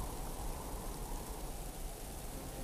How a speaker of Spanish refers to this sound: Afuera, el viento había terminado, se había nublado y una fina lluvia mojaba la tierra.